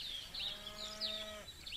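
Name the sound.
cattle mooing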